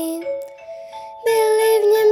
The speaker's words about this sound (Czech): Zavírám oříšek pohádkový, slyšte už zvonky zvoní